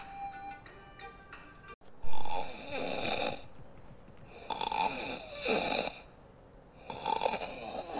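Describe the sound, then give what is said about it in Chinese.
Loud, rasping snores of the Great Sage in a temple at night after the temple door closes, repeating in a slow rhythm, each long noisy breath swelling and fading with short pauses between, after a brief faint tonal sound at the start. “每晚庙门一关，他的鼾声”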